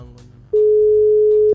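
A single steady telephone tone sounds for about a second, loud, like a ringback beep while a call is placed, preceded by faint low background noise.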